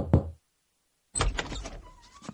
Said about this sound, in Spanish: recorrió el pasillo y tocó la puerta de Nanón